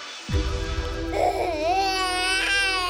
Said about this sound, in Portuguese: O choro de uma criança.